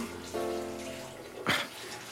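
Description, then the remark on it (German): Water from a bathtub tap, used as a fountain sound for a re-enacted scene from Federico Fellini's 1960 film La Dolce Vita, rushes and splashes steadily, with one brief louder splash near the end. A faint sustained tone hums beneath the water for a moment early on. No one speaks. “Das Wasser weiß es. Hör ihm zu.”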